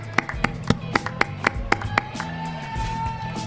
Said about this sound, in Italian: un altro applauso a tutti.